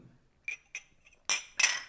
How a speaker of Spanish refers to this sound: Y em, bueno, dicho esto y con los vasos llenos, vamos a brindar antes de empezar nuestro... Salud.